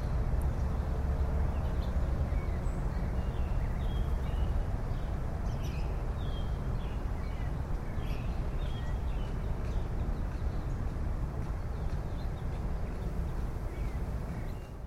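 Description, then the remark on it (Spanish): Steady outdoor dawn ambience recorded with condenser microphones. A constant low rumble and bustle of human noises continues while faint, scattered bird chirps flicker in the background throughout. “Se registra todo el audio de la naturaleza, las aves, el amanecer y los ruidos producidos por los humanos.”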